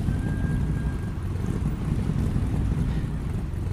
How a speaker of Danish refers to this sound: Da bilen bevæger sig ud i den københavnske trafik, begynder smilene at brede sig hele vejen rundt i bilen.